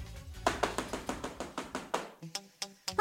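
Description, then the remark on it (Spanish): A neighbor pounds hard and roughly on a door: a fast, insistent run of about ten loud knocks, followed by a few slower, scattered raps. No one speaks. “Ay, esta vecina, siempre tocando la puerta de malos modos.”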